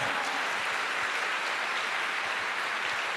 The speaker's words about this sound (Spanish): Yo quiero que le dé un fuerte aplauso al Señor.